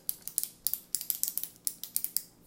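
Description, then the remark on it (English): Rapid, crisp retractable pen clicks repeat in quick bursts, roughly a dozen or more sharp little snaps with no one talking. “You gotta stop flicking your pen. Just keep it keep it open.”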